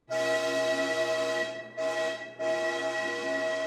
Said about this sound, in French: Je me précipite donc à l'intérieur, même pas deux secondes après avoir mis les pieds dedans, toujours dans le sas séparant les différents wagons, j'entends le sifflet du contrôleur et le train commence à s'élancer.